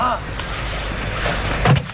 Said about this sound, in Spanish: Ahí remata el toro en el burladero del 8.